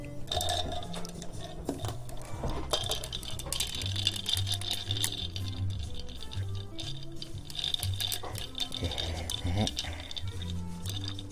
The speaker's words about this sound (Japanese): まったりいきますので、飲んで氷の音、なんて聞いてください。